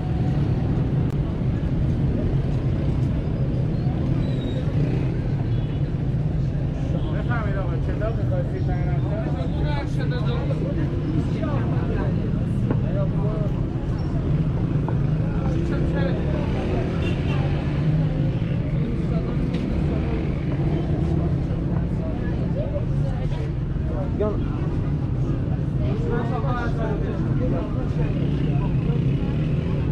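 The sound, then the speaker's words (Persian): Busy traffic ambience in Enghelab Square (Revolution Square), Tehran: a steady, loud hum of engines and passing vehicles, with scattered voices and chatter blended into the continuous low rumble throughout. “خانم ها و آقایون صدای من رو از میدان انقلاب تهران میشنوید.”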